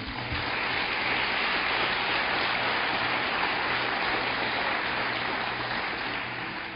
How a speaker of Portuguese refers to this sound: Amém? Você pode aplaudir Jesus por isso?